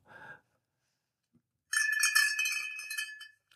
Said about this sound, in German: Kühlschrank aufmachen und die, die Milchflasche in der Kühlschranktür Tür klirrt.